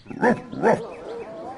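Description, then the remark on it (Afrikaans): Two gruff dog woofs in quick succession, then a quieter low grumbling that trails off, like animals still muttering among themselves. “Die diere brom brom nog onder mekaar, maar skud toe hulle koppe en begin wegstap.”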